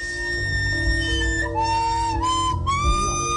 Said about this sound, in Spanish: A ver, me pongo la flauta. A ver.